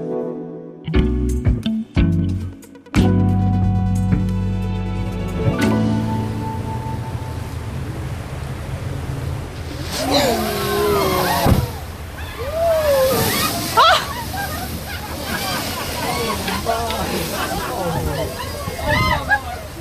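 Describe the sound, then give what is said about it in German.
A large cruise ship full of tourists circles through the water searching for whales, with continuous sloshing and churning and a low rumble underneath. Brief tonal sounds open the scene, and faint rising calls drift over the water noise. “Was hören wir denn da? Wir hören ein Kreuzfahrtschiff.”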